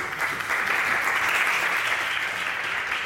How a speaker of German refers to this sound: Äh, ich bitte euch jetzt um einen fetten Applaus für die beiden und ihre Gäste und eine Live-Episode vom Rheinpegel.